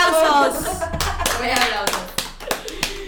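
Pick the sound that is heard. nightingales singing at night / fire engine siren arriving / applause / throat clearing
applause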